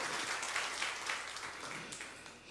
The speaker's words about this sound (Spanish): No me la dejen aplaudiendo sola.